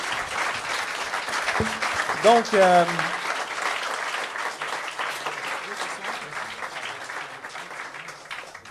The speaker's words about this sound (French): Je pense qu'on peut terminer avec une belle main d'applaudissements pour les euh, intervenants.